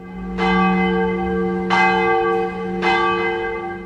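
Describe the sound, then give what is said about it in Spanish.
The bells of the San Sebastián church ring out in a rapid alarm peal at about half past five to six in the morning, warning of the entry of Ortega's troops, three bright strikes about a second apart with long humming overtones, loud, with no voices present. “revive el repique de campanas que avisaba sobre la entrada de las tropas de matones orteguistas”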